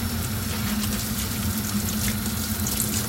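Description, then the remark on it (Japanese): Water runs steadily from a tap as soapy dishes still covered in foam are rinsed underneath, a continuous splashing rush, with no speech over it. “はいそんなわけでちょっとまだ泡だらけなのでちょっとゆすいでから切りたいと思います”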